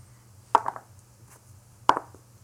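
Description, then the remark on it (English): Dice are rolled twice: two sharp clattering knocks about a second apart, the first trailing off in a short rattle, over a faint low hum with no talking. “Let's roll the dice.”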